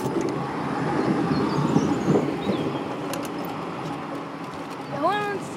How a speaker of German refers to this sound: Und jetzt so die Augsburger Straßenbahn, die vorbeifährt. Da steht irgendwas mit Alpha-Apotheke drauf.